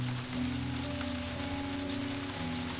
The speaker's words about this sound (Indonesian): sore pukul 16.15 hujan deras sekali.